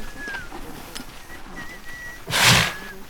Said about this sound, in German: der Hirte, führte die Karawane an und pfiff dabei seine Lieblingsmelodie.